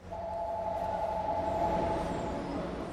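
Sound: subway train riding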